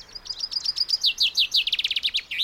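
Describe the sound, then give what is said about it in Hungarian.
A small bird, likely a finch, chirps with a phone held up to it, a rapid series of high, bright notes that speed up into a quick trill, clear with no talking. “Oda teszed a madár szájához a telefonat, hogy ebbe tessék beszélni.”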